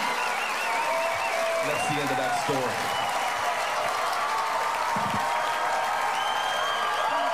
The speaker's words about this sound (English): And a 10 second applause break for I called the guy gay at the chicken store.